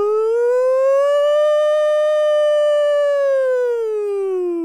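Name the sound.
voice imitating a siren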